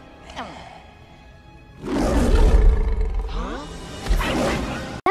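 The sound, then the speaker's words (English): Loud, ferocious roaring and snarling burst in after a quieter opening, surging through a frantic animated film chase scene in which hyenas chase two characters through an elephant graveyard, with whooshing movement and a sudden thud at the end. “So, for this game, you need to guess which movie the chase scene you're hearing is from.”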